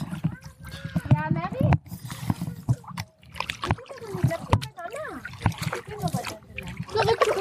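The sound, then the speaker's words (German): Water splashes and sloshes around a canoe on the water in repeated, uneven bursts on a windy day, while an adult and a child talk over the watery noise. “Ja, der schiebt uns das ins Wasser, wir steigen da ein und dann geht's los.”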